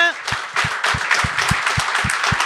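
An audience applauds in a dense, steady wash of clapping, with a regular low thumping beat running underneath throughout, like rhythmic stomping or unison claps.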